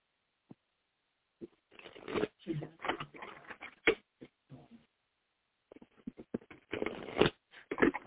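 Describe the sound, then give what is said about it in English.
A deck of oracle cards being shuffled: irregular bursts of crisp, papery flicks and slaps come in two clusters separated by a brief pause, with no talking. “Okay, so we're going to do a little shuffle, shuffle, shuffle.”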